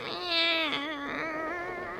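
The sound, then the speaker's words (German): A cat lying in a basket yowls angrily in one drawn-out, harsh cry that wavers and bends in pitch. It is fairly loud, with no other sounds around it. “Oh, wie abscheulich, was du da sagst. Wieso machst du ein so schreckliches Gesicht?”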